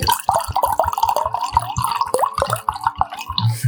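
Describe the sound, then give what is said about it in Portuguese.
A small bottle being filled with wine: steady gurgling glugs with a resonant tone that climbs in pitch as it fills, continuous and fairly loud, with no talking. “Ai, eu tô eu ouvindo o barulho da garrafinha enchendo.”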